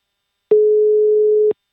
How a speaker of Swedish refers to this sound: Så att jag tänkte passa på nu när dagen är i Japan att ringa upp till de här två bolagen och eh, stämma av hur läget är. Och vi börjar med solelgrossisten. Så här ringer vi först till deras vd